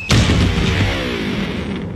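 An electric guitar, hurled off a 20-story building, crashes to the ground with one sharp, loud impact, and its strings ring on in a dissonant, humming drone that slowly fades. No one speaks.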